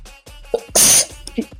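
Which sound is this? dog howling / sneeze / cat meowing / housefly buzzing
sneeze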